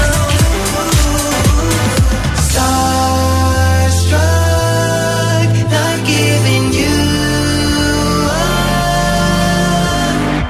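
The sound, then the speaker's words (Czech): A newly released, upbeat, fast-paced funky pop track plays loud and full, with a driving bass line, punchy rhythmic beats and bright layered synths and vocals, no talking over it. “funky, tohle je rychlý, tohle je dobrý.”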